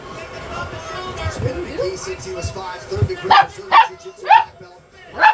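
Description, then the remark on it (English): A dog barks four times in quick succession, sharp and fairly loud, following a stretch of muffled background talking and low rumbling noise. “Don't come in here and bark like that.”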